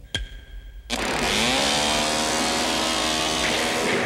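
A sharp click, then a chainsaw roars to life and revs loudly and steadily, its engine pitch wavering slightly as it keeps running.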